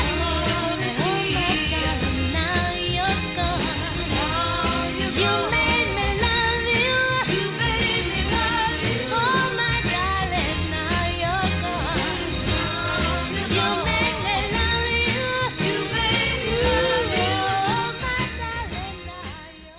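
A full, steady band recording plays throughout with layered melodic vocals and instruments, a classic Detroit Motown soul track at constant loudness that eases down slightly at the very end.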